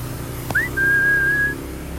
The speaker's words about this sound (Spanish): Esa es la señal, ese silbido.